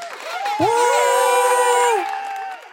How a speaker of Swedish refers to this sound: släng in en applåd här till dem tycker jag?